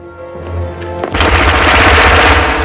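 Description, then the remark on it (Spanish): After a low hum, someone leaps behind a pile of plates in a plant and fires a sustained burst of automatic gunfire, rapid shots blurring into a loud, dense rattle that continues to the end. “Salta tras la pila de planchas y dispara una ráfaga.”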